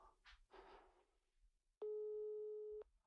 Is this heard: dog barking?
no